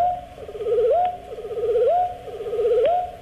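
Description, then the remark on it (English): Wood thrush song slowed to one tenth speed, from a single voice box (the left one): a low, pure warbling tone that wobbles and then sweeps upward, repeating in three unhurried phrases with no talking. “Here it is at one tenth speed, wood thrush.”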